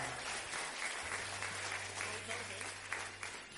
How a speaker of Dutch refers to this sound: Geef de Heer een applaus. Halleluja.